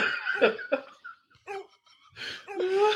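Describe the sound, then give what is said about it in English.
A dog that has been out in the freezing cold wheezes and coughs in several raspy, strained bursts, with harsh hacking breaths and short gaps between them, fairly loud and with no talking. “Who let the dogs out that had an asthmatic dog?”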